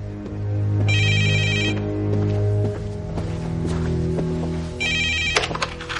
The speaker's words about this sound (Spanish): Ambos miran sorprendidos el teléfono. Ese es el teléfono de Dan. Ya lo cojo.